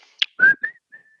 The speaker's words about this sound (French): Et là, je vais essayer de siffler dans le micro pour voir si ça marche pour vous faire la mélodie. Ça marche ou ça marche pas Au début, c'était bien, et puis après, non.